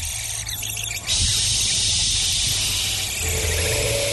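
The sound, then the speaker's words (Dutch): At daybreak, a rain bird of prey screams with a shrill, squealing cry over a loud, steady rushing background, the call growing clearer toward the end. “De dag brak aan en Nabouli hoorde de regenroofvogel schreeuwen”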